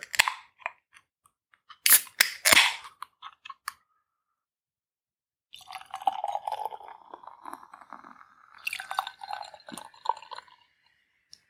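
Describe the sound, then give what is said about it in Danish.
Sharp metallic clicks and a loud hissing crack as the tab of a can of Vocation Brewery Fruited Sour beer is pulled, then after a short pause a steady fizzing, gurgling pour of the beer into a glass. “Lad os se om øh, sådan en dåse her, det er jo en dåseøl, om den kan lave en lyd.”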